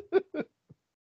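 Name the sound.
sneeze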